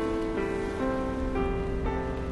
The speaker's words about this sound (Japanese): 窓を伝う雨粒が後ろに流れていく